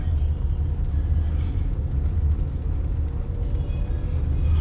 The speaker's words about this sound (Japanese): 時間が早いので、えー、たくさんの車や自転車が走ってますね